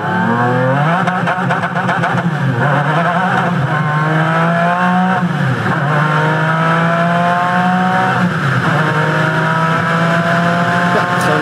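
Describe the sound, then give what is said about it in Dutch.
A McLaren F1 sports car engine revs hard and loud, its pitch climbing and dropping through several sweeps as it shifts, sustained with no talking. “Ja, ik, McLaren en historie denk ik altijd, ja jongens, eigenlijk gaat het maar om één auto. Namelijk nou, McLaren F1.”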